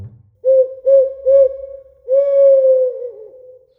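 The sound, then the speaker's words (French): An owl hoots loudly: three short, evenly spaced hoots followed by one long, drawn-out hoot that wavers and trails off at the end. “mais il sursautait quand la chouette faisait entendre son gros”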